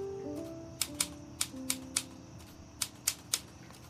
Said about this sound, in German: Als er zu Hause ankommt, setzt er sich an die Schreibmaschine und tippt, ohne auch nur ein Wort zu korrigieren, den letzten Absatz des ersten Kapitels.